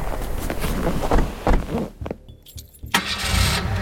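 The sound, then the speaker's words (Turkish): A car engine cranks with rough mechanical rattling, drops quiet for a moment, then catches and rumbles into a steady running hum. “Hugo'yu mutluluk merkezinde tek başına bırakıp arabama döndük.”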